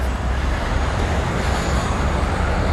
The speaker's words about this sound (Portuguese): contra essa imagem de vídeo vai um carro deslocado atravessando o canteiro no meio do trânsito